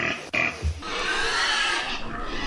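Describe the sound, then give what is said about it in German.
Hungry pigs on a farm squeal loudly and continuously for food, a harsh, high-pitched shrieking chorus with a few low grunts near the start and no talking. “Warum schreien oder pieken die schon?”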